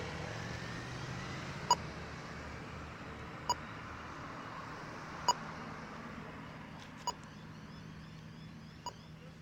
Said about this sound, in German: So, das war jetzt eine Ampel in Adelaide. Hört sich ganz anders an als die in Melbourne. Finde ich auch viel schöner, stört mich ganz so sehr.